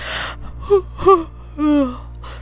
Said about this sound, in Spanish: Candy bostezó y se reacomodó para dormir.